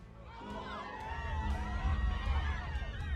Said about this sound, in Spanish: De pronto se escucharon gritos que venían de afuera.